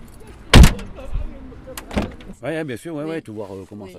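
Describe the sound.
The door of a black taxi van thuds shut in La Monnaie, followed by a second heavier thump a moment later amid faint vehicle rumble, then a person begins talking.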